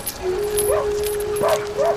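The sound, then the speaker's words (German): Siberian huskies whine and yip: a long, steady high whine runs underneath while three short, rising yips break out, against a faint, noisy background. “Die einzigen Tiere, die sich durch Sturm und Schnee kämpfen können, sind die sibirischen Huskies.”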